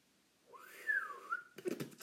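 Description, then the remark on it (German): A shaky, breathy attempt at whistling: one wavering tone rises and dips for about a second, then breaks off into a short burst of airy noise. Fairly quiet, with no talking. “Ich kann nicht. Ich kann nicht pfeifen.”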